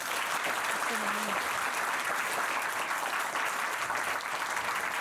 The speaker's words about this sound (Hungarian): Szeretnék egy nagy tapsot kérni Liptai Klaudiának.